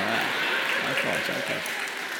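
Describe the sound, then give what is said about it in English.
An audience, the clapping coming from people over 50, claps steadily throughout, a dense, even wash of many hands with no breaks, and a faint voice murmurs underneath partway through. “And, and why is it only people over 50 who are clapping right now?”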